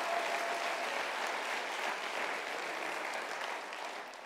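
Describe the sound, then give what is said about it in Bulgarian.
A church audience applauds steadily during a sermon, a dense wash of many hands clapping at once, sustained at an even loudness before easing slightly near the end, with no voices over it. “Ако ръкопляскаш, ръкопляскайте, че наистина вярваш.”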